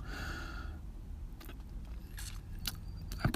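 A steady low rumble like a car engine or road noise heard from inside a parked car, with bright metallic jingling like keys rattling on top and a few sharp clicks near the end.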